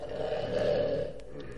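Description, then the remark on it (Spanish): A loud, deep, rumbling snore from an ogre, drawn out as one long rasping breath, unbroken, with no talking over it. “Oídle como ronca.”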